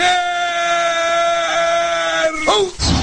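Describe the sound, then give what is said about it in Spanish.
A loud, sustained cartoonish scream, Homer's scream, holds one strained, bleating pitch for over two seconds, then warbles and breaks off abruptly into a brief noisy burst at the end. “del mundo existen muchísimos tipos de gritos, como el grito del gas, el grito de la basura, el grito de Homero,”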